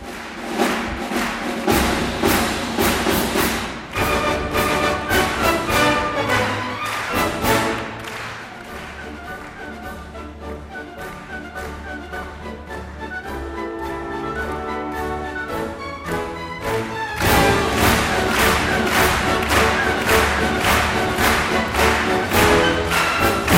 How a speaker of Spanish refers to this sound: esta marcha Radetsky que siempre cierra el concepto de Año Nuevo y que permite, lógicamente, que el director dirija las palmas del personal.